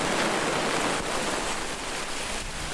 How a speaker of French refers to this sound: Il pleut, on patauge un peu.